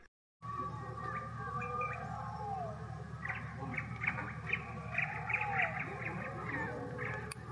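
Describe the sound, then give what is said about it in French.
Birds chirp and twitter in short repeated bursts over a steady low rumble of city traffic, the calls growing busier and more layered in the second half. “Des sons de la ville s'entremêlaient au gazouillis des oiseaux.”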